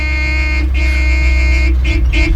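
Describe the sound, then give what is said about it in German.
A car horn honks loudly: two long blasts followed by two quick short toots, with a low engine rumble running underneath. “hupen Sie, hupen Sie!”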